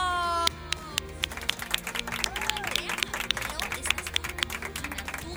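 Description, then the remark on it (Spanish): A short musical tone gives way to a crowd breaking into applause: dense, irregular clapping that stays steady and fairly loud for about five seconds, with a faint murmur of voices underneath. “¡Aplausos!”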